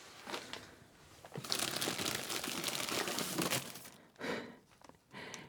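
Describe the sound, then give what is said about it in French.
Dry crinkling of paper packaging as 1990s Kleenex toilet paper rolls are handled, a dense rustle for several seconds followed by two shorter crackling bursts. “Des rouleaux de papier toilette.”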